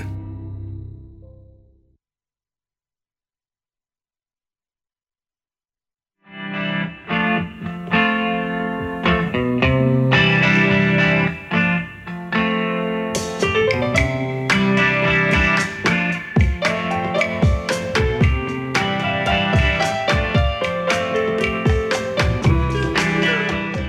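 A rock song with electric guitar starts after a few seconds of near silence, then plays steadily and loudly with a driving beat, bright cymbals and layered instruments, and no voices.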